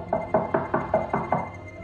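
Six quick, evenly spaced knocks on the wooden door of a house, firm, with a hollow resonant thud to each rap and no voices.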